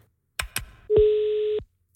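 Two quick clicks like phone buttons or a handset being picked up, then a single steady electronic telephone tone held for about half a second before cutting off, as a phone call is placed to a helpline to ask a question. No one speaks.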